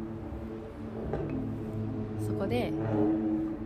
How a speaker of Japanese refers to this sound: やばバイクがうるさい